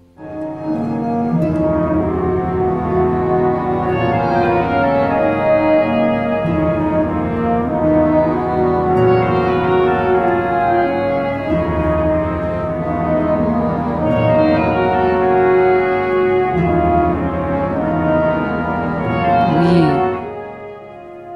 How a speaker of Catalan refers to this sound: i això s'ha de cantar amb la música que ja hem escoltat en el cor anglès i que ara tornem a sentir en el final del poema sinfònic de Rodrigo.